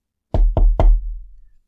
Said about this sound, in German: drei Tage später klopft's auf einmal an der Tür von Maika